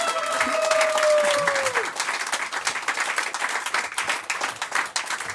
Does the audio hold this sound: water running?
no